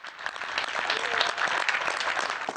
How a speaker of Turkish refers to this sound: Tüm sağlıkçılarımıza selamlar, sevgiler. Bu alkışlar tüm fedakar sağlık çalışanlarına.